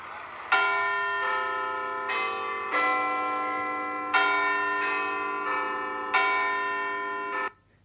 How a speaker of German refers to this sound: Ja, das ist der olle Big Ben. Und ähm, das ist das Wahrzeichen äh, aus London.